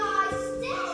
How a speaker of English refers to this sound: you can hear my son in the background. He's pretty excited about this.